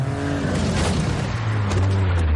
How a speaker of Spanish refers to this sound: El taxi aparece tras él y le atropella.